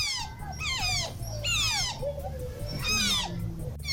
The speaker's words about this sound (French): Ça, c'est le bruit d'une loutre quand elle est contente. Ah, c'est mignon.